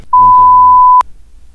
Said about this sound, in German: Hörst du es nicht oder was? Das hm. piepst doch die ganze Zeit, wenn du runterholen sagst.